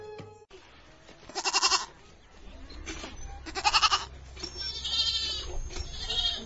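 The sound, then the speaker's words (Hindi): Several goats bleat in wavering, nasal cries, with two loud calls standing out near the start and middle and softer overlapping bleats following, set against a low steady background rumble. “तो गहूम देखैत रहे नहीं तो पटरू सब छीट देतो”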